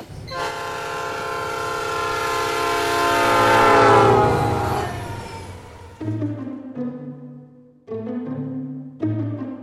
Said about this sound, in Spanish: Y, ahora me bajo del tren porque ya estoy en la estación Migueletes, en San Martín.